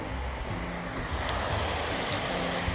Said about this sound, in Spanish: Dije, escuchen cómo llueve?